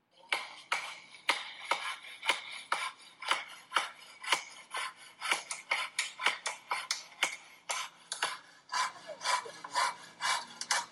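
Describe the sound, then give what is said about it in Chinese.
Sharp, irregular hammer blows on wood ring out, then give way to a steady back-and-forth rasp of a saw cutting through wood, as epidemic-prevention workers nail wooden boards across alleyways in the dark at night in Longmen Village, Laoximen Subdistrict, Huangpu District, Shanghai. No one speaks. “在一段视频中，多名防护人员正在黑暗中钉木板，锤子的敲打和锯木头的声音打破了夜晚的宁静。”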